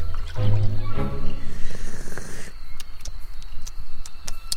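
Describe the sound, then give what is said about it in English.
Someone drinks holy water from a makeshift cup, with wet sipping and swallowing and some liquid sloshing, followed by a few small clicks and taps. “Oh, let me just uh, drink it then.”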